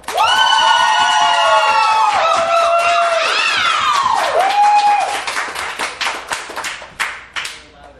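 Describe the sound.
An audience applauds loudly amid cheering, whoops and high shouted voices for about five seconds, then the clapping thins out into scattered individual claps that trail off.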